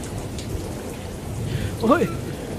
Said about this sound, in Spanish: empieza una gran tormenta. ¡Qué bien se está en este barco! ¡Ha empezado a llover! que está cayendo!